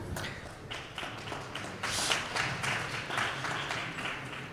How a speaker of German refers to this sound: Das ist der Buchmesse 2021 Applaus.